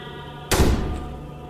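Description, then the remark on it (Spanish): A living-room door is opened and slams shut with one heavy thud that rings briefly and fades. Nobody speaks. “Luego escuchamos cómo se abría la puerta de la sala y se azotaba.”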